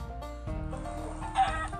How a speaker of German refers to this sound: Ich greife Hühner an.